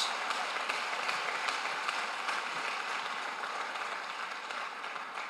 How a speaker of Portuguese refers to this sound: Se for para Jesus, aplauda bem forte.